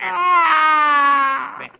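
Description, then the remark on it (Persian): A single long, wailing cry from a newborn baby, coming from an open window of a house, steady and loud, rising at the start and tapering off after about a second and a half, with no other sounds. “بله از پنجره باز یه خونه صدای گریه یه بچه تازه متولد شده توجه آقای شانس و حسابی به خودش جلب کرد”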